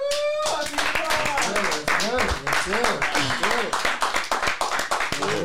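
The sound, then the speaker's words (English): An audience claps in a dense, steady burst of applause lasting several seconds, with excited voices whooping and cheering over the clapping throughout. “love it clap it up y'all”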